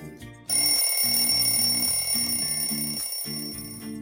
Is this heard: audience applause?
no